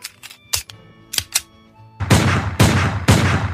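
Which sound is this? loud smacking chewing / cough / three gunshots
three gunshots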